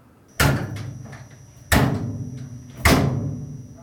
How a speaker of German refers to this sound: Genau, das ist ein Maschinenraum-Türgeräusch, das ist einfach schön blechern Aber und. Das ist die satt. Tür vom Führerstand hinten im Maschinenraum. Ja, also eben, eben zwischen Maschinenraum und Führerstand quasi.